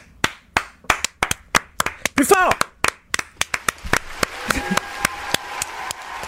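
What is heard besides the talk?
applause and clapping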